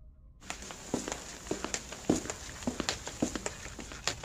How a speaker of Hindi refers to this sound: एक दिन शाम को जब जैसिका अपने किचन में बर्तन धो रही थी उनको कहीं से एक चलने की आवाज़ आई उन्हें लगा कि कोई ऊपर है फिर दो लोगों की चलने की आवाज़ आई